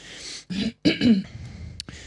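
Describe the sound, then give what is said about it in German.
A loud throat clearing in a few rough, gravelly bursts with short pauses between them, followed by a faint breathy trailing sound. No talking. “Ja, jetzt weiß ich auch, was auf Studio Link noch fehlt. Das ist die Räuspertaste.”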